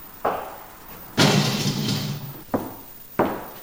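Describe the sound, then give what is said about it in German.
Doors knock and thud several times in an empty, echoing nightclub in Offenbach, Germany, broken by a longer rattling sweep of blinds being opened and closed, as a musician knocks on surfaces and works doors and blinds to record the empty space. Clear, with no voices. “Konkret bin ich in den Club gegangen, ausgestattet mit einem Aufnahmegerät und habe da auf Flächen geklopft, gehammert, geschlagen und habe Jalousien aufgemacht und zugemacht, Türen, Schlüsseln, durch die Räume mich bewegt, einfach mit offenem Ohr”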